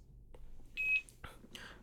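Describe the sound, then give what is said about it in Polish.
A single short electronic beep from an audiobook player, a clear high-pitched tone lasting about a quarter second, followed by a couple of faint clicks and brief indistinct voice sounds at low level. “Na razie jest na jednym piknięciu.”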